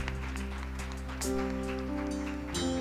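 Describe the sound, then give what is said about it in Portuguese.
An audience applauds Jesus in a steady, dense patter of clapping that swells around the middle and again near the end, layered over sustained, droning musical chords. “Aplauda Jesus.”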